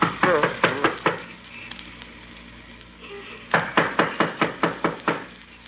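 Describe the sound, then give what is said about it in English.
Sharp knocking on the door at 576 Milton Avenue, fairly loud: a quick series of about five raps, a pause of a couple of seconds, then a longer, steady run of around eight more. “Well, knock on the door anyhow.”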